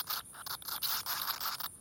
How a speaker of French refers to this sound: Des crépitements aigus se font entendre. Une colonie de chauves-souris a élu domicile dans les crevasses. Et au fur et à mesure que le noir s'installe, leurs bruits d'ailes cartonnées prennent de l'ampleur.